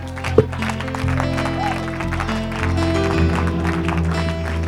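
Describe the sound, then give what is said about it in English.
A church audience claps and shouts unto God together in a dense, steady wash of handclaps, mixed with voices and sustained organ chords at a fairly loud level. “And I dare somebody to clap like you ain't never clapped and shout like you ain't never shouted”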